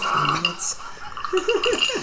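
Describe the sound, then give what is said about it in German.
A whisky cocktail made with Glenmorangie and marmalade being stirred in a glass: a spoon clinks and rattles against the sides in a quick, bright jangle, with muffled voices talking over the stirring. “was haben wir denn jetzt alles in unserem Cocktail da drin, nachdem wir jetzt ordentlich umgerührt haben?”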